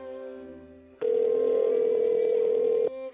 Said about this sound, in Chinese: 就在电话刚响起第一声的时候，一个意外的事情发生了。